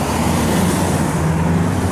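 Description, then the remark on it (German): A steady, loud wash of road traffic at the BMW Welt, cars rumbling past in a continuous low drone with no gaps and no voices. “Direkt von der BMW-Welt ist übrigens auch der ganze unschöne Geräuschmatsch von Autos zu erfahren.”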